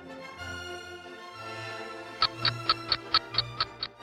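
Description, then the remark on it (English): A clock ticks steadily, about eight crisp, evenly spaced ticks in the second half, heard over a soft sustained musical backdrop. No one speaks. “It is nearly 12 o'clock.”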